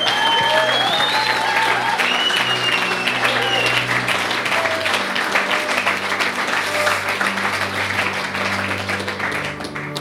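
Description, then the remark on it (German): A crowd applauds loudly and steadily for about ten seconds, dense clapping filling the room with a few cheers and a sustained low tone underneath. “Und lasst uns mal einen fetten Applaus geben, ja?”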